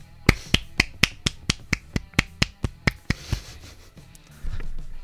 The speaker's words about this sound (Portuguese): uma salva de palma pro Kitó